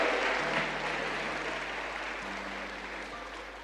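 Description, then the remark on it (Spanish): An audience applauds Jesus Christ with sustained, dense clapping that stays strong throughout and gradually eases slightly toward the end, with a faint steady hum underneath and no talking. “Dale un fuerte aplauso a Jesucristo.”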